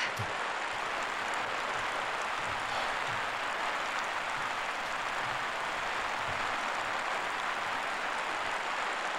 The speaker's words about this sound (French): Averse.